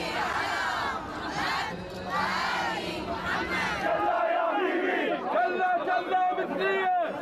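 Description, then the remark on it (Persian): An angry crowd of protesters shouts and chants together at the Swedish embassy in Baghdad, which was burned by the protesters. Many overlapping voices form a loud, continuous roar, with individual raised cries standing out near the end. “سفارت سوئد در بغداد در آتش خشم معترضان سوخت”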